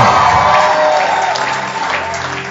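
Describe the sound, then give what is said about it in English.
A large church audience claps and cheers together in appreciation of Pastor Poju, a loud, dense wash of applause with scattered shouts and whoops, sustained steadily throughout with no pauses. “Let's clap our hands well and appreciate Pastor Poju.”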